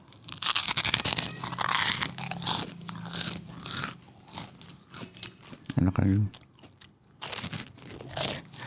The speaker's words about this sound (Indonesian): berisik anjir makan apa bangsat kerupuk kulit kelelawar.